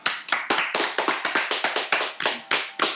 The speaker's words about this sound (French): le mec s'applaudit quoi.